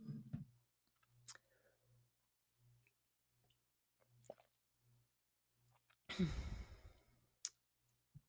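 Someone takes a quick, airy sip of tea, surrounded by near-silence with a few soft clicks and light mouth sounds before and after.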